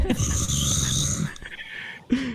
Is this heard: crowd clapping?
no